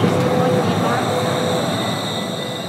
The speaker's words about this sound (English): This is a Valley Line train to 100 seconds.